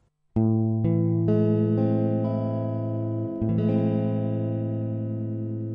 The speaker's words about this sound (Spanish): Por ejemplo, en el La menor, en vez de soltar la tercera para que suene un Sol, la pisamos en el casillero 1 para que suene un Sol sostenido y ahí nos quedaría un La menor max 7. Escuchen cómo suena.